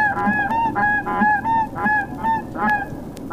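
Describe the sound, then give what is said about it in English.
A quick, steady series of about seven loud, nasal goose honks blown on a goose call by a contestant at a goose calling championship contest in Missouri Valley, Iowa, where each contestant does a Canada goose, a blue and snow goose, and a white-fronted goose call, with no talking. “Each contestant is doing a Canada call, doing a blue and snow goose, and then doing a white front goose which I'm sure is quite clear from this.”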